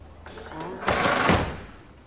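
A door opens with a brief, bright rush and rattle lasting about half a second as George walks into a children's bookstore in a film scene, set against a low indoor background murmur that fades afterward.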